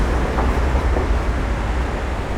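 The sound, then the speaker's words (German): Steady, loud road traffic rumble at a busy street corner at Planade and Neuer Jungfernstieg, a constant low roar of passing vehicles filling the scene with no pauses and no voices. “Das äh, ist jetzt auch wirklich verkehrsbelastet.”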